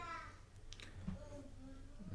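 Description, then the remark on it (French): Faint baby babbling in the background, a few soft, brief vocal bursts and coos scattered across a quiet stretch, with no clear speech over them. “On est toujours premier sur les bruits de bruits de, bébé, ouais.”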